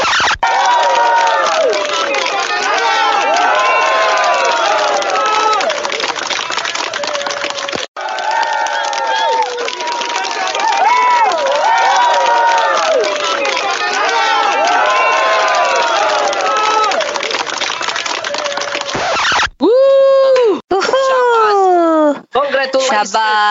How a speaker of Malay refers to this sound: Ah uh, sebelum tu marilah kita dengar sedikit sedutan sorakan untuk frontliner kita.